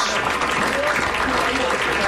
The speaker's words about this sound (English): and cheer and clap for the frontline healthcare workers.